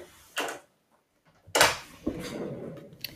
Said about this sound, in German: Ganz kurz für meine Katze die Tür geöffnet.